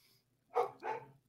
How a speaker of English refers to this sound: But yeah. stupid dog.